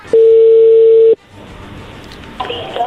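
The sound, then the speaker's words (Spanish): A phone line rings once as an outgoing call goes through: a single loud, steady mid-pitched tone held for about a second, then a hissy open line with faint electronic chirps near the end. “A ver, ya entró la llamada, no haga ruido.”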